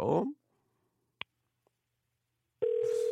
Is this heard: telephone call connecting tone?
yes